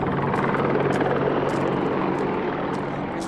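An Apache attack helicopter's loud, steady rotor drone fills the scene over a military training area, a dense low thrum with rhythmic chopping pulses as it passes overhead on an observation flight. No one speaks.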